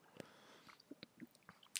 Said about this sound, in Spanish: Entonces, si dices, que sabe hacia la Erdinger mi reacción es darle un trago al Erdinger para ver este.